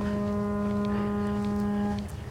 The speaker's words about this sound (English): So that's like a foghorn on a ship, I yeah. think. Yep. Oh, that fits the atmosphere, doesn't it?